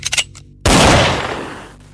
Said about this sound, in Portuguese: Eu tenho um revólver, né? Um 38. Vou disparar, claro.